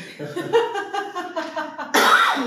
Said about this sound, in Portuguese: Eu tô tossindo que essa semana eu peguei uma gripe tão oh, forte. Isso que eu já tô bem.